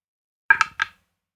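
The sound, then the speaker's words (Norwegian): A plastic die rolls briefly across a dice tray, a quick rattle of three or so light clicks, over in under half a second with no one talking. “Jeg ruller, jeg ruller, i et terningbrett, så kan du Ja, det er plast, metall eller resin.”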